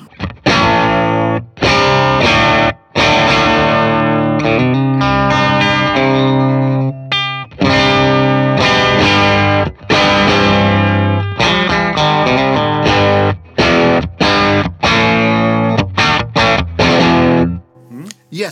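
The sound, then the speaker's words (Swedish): An electric guitar played through an overdrive pedal, with crunchy, distorted chords and riffs strummed in rhythmic bursts with brief gaps, ringing out at the end. “Gainen klockan 10, var är ja. volym? Där är grejen! Bara, hör hur det låter klockan typ 12.”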